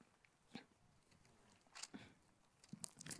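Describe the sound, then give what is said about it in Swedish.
Crisp paper rustling as Bible pages are flipped in the wind, a few quick flutters and crackles in irregular bursts, fairly quiet, with no talking. “Det är en utmaning att bläddra i Bibeln i vind.”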